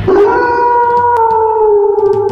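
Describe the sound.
A wolf howls in one long, loud, sustained note that slowly sinks in pitch, heard on its own with no voices.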